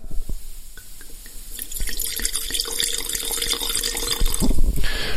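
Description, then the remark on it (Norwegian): Spanish Sauvignon Blanc white wine pours into a glass: a few faint drips at first, then a steady splashing, gurgling stream that brightens and rises in pitch as the glass fills, with no talking. “Eh, så nå skal vi helle oppi glasset her.”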